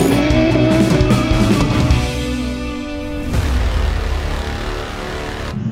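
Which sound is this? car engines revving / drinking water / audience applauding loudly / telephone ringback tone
car engines revving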